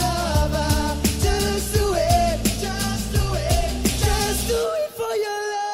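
A male singer who represented Spain belts over loud band music, straining upward until his voice breaks on a high note; near the end the backing drops away and the wavering vocal hangs alone.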